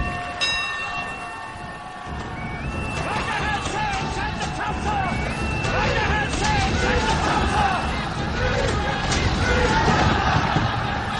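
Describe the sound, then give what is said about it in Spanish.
Sailors aboard the ships of a turning naval squadron off the coast and port of Tokyo rush to their battle stations amid a dense commotion of overlapping men's voices and officers' shouts, loud and continuous, after a brief steady ringing tone at the very start. “Los marinos están por todos lados, corriendo a ocupar sus puestos entre los gritos de los oficiales.”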